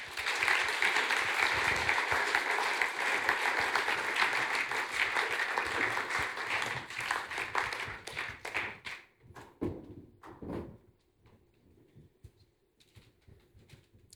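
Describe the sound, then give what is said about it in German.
An audience claps steadily in dense, warm applause for about eight seconds as two women come onto the stage, then it thins into scattered individual claps and fades out. “Gerne doch einen warmen Applaus, sie sind auf die Bühne kommen.”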